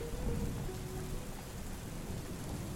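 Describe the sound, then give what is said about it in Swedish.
Steady rain hisses across the whole clip while low rumbling thunder rolls underneath, a dense, continuous storm sound with no voices, on a dreary, windy day. “När vi så äntligen en trist och blåsig dag närmade oss resans mål började åska.”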